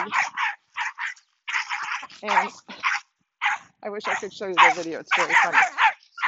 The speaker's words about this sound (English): you're going to listen to a dog barking for a little bit